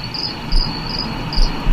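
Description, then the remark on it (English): A flammulated owl gives soft, low single hoots spaced about a second apart, set against a steady, high-pitched chorus of chirping crickets, with no voices. “which turned out to be the flammulated owl, so named for its commonly appearing flame colored feathers.”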